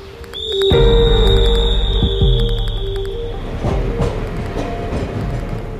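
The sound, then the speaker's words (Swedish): A night train from Munich to Hamburg rolls along the rails, its deep rumble joined by a sustained high-pitched wheel squeal and a few heavy clunks as it passes over track joints, with no voices. “På kvällen stiger han på nattåget från München till Hamburg.”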